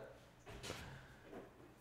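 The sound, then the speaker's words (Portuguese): A door is pushed shut in one brief, muffled thump with a short sliding rush, followed by a faint softer knock against a low background hum. “Eu falei 700 vezes pra fechar a porta.”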